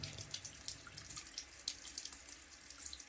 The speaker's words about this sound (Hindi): नल से पानी बाल्टी में भर के पता नहीं कब से फिजूल बर्बाद होके नाली में जा रहा था